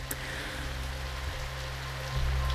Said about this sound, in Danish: jeg vågner op ved, at det regner på mig øh, dernede, og at det er blevet mørkt.